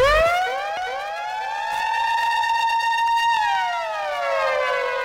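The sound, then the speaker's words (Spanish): A loud breaking-news siren sound effect with layered tones rising and sweeping upward, holding a steady wail, then bending downward before swelling again, introducing breaking news about Panama's national football team. It plays alone, with no talking. “Sirena entonces, última hora”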